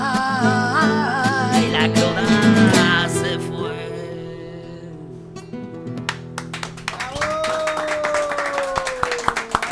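A song ends on sustained, ringing notes, then a small audience breaks into steady clapping that continues for several seconds, moderately loud.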